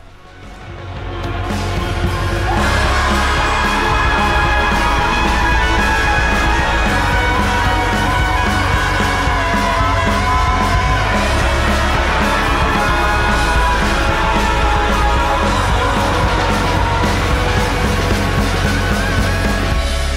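A large crowd screams together at full volume, a dense sustained roar of many voices that swells in over the first couple of seconds and holds steady throughout.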